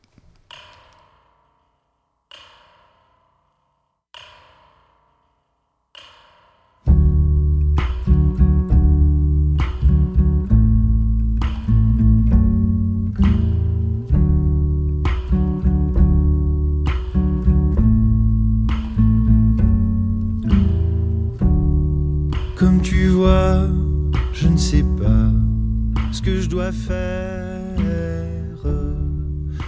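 Instrumental opening of a French pop song, the title track of an album: a few sparse, ringing notes spaced out at first, then a full band bursts in with deep bass and steady chords, loud, with no singing yet.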